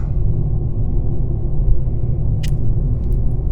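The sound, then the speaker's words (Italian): Steady low rumble of road noise inside a moving car travelling to the Marche region of Italy, constant and fairly loud, with a couple of brief high clicks near the end and no one speaking. “Ok, l'unica cosa magari dobbiamo parlare un po' ad alta voce okay. per superare il suono perché siamo in macchina e stiamo andando nelle Marche”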